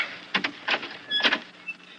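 A guard pushes a door wider open with a few short scraping, creaking bursts and a faint squeak, fairly quiet, with no voices.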